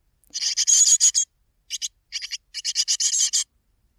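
Harsh, raspy begging calls from a hungry Japanese tit chick, the first call the bird makes after hatching and one adults do not make, given in several buzzy bursts with short pauses between them, fairly loud, with no one talking.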